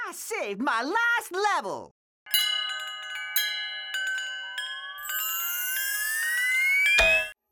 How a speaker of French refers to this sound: Alors là, il y a eu un habillage en fait qui, voilà, on habille euh, l'action. voilà, on a habillé le robot qui apparaît euh, et euh, j'ai pris le parti là de d'habiller un peu ça n'importe comment avec des petits sons cartoon, ce qu'on appelle